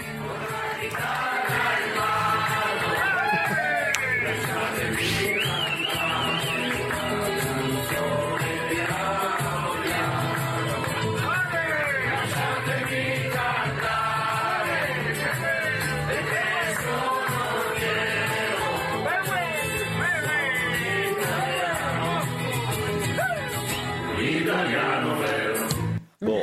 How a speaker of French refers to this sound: Et ces derniers arrivent à l'aéroport de Lyon Saint-Exupéry nous ont offert une petite séquence en chanson dans le bus. Regardez.